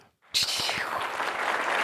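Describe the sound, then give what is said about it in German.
A brief pause, then a sudden burst of dense applause inserted as a sound effect, a crowd clapping loudly and steadily for under two seconds with a bright, hissy texture. “Und können wir so einen Applaus einfügen?”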